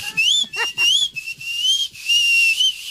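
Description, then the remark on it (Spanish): A caller on a phone line from Phoenix whistles a high, steady tone that wavers and glides slightly in pitch, held almost continuously for about three seconds with a couple of brief breaks, sounding thin. “¡Ay, chiflidito, no lo tengo!”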